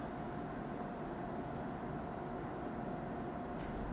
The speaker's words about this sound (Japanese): ちょっとエアコンの音がうるさいかもしれないわかんないけど風量一番高いからちょっとうるさいかもしれないんですけどすいません